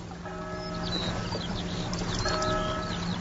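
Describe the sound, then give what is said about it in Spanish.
A bell rings twice, each strike leaving a sustained, shimmering tone that hangs before the next, while birds chirp and twitter throughout in the background. “Una campana.”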